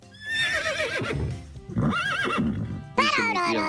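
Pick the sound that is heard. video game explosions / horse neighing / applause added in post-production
horse neighing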